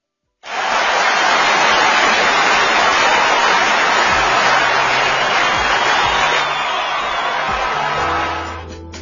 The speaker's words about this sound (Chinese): 显然，此处应该有掌声，我们也配合了。